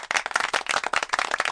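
A burst of applause from a small group, many hands clapping quickly and unevenly at moderate loudness, steady throughout with no voices.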